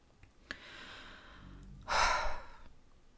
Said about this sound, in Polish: Wzięłam głęboki oddech, bo wychodzi na to, że dotarłam, dotarłyśmy wspólnie, dotarliśmy, jeśli mężczyźni tego słuchają, e, do końca tematu sprzedażowego.